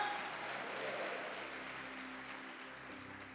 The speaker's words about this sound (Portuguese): Dê uma salva de palmas ao Rei.